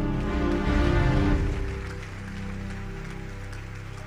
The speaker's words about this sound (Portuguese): A igreja pode aplaudir ao Senhor.